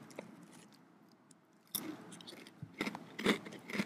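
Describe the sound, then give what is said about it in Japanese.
Crisp crunches of someone chewing mildly salted Hokkaido potato chips, starting sparse and then coming in several sharp, loud bites and crackles toward the end, with no talking. “この北海道のポテチうまいよね。”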